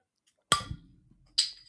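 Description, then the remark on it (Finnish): The cap of a Special Effects beer bottle pops off with a sharp, dull crack and a short low rumble, the cap flying over someone's head, followed about a second later by a bright, ringing metallic clink. No voices. “No niin, vähän huono avaus tuon äänen puolesta, mutta tuota... Korkki lensi silleen niin, mitä olit pään yli.”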